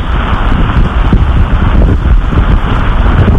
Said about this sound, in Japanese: っていうか、雨もひどいもんですが、はい。